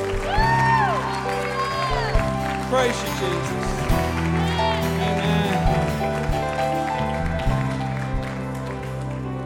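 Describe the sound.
A church audience applauds steadily for several seconds in praise of Jesus on a Christmas weekend, a dense wash of clapping mixed with scattered cheers and voices calling out, while someone speaks over it and sustained musical tones hum underneath.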